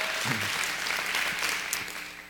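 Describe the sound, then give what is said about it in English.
An audience applauding, a steady wash of many hands clapping at an even, moderate loudness, with no voices rising above it. “I know you've applauded two times already, but three times will you let our online family know today?”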